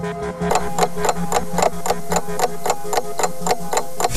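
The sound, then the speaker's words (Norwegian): A clock ticks steadily and prominently, about two crisp ticks per second for several seconds, over a low sustained humming tone, with no voices. “La oss drømme oss litt bort, og vi setter klokken til september 2013.”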